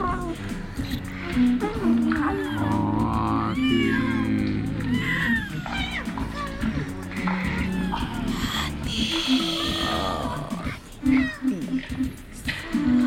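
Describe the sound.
A cat meows repeatedly, drawn-out rising and falling cries, mixed in with a voice talking and some low background sound.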